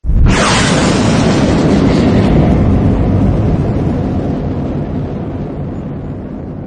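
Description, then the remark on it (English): A sci-fi starship engine roars to life with a sudden blast as the ship lifts off, then settles into a loud, sustained deep rumble that slowly fades, with no voices. “The room filled with as the starship's engine hummed to life.”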